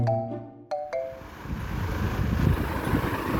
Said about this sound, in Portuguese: Ah, vou ter que desligar o ventilador porque esse barulho não vai deixar eu falar.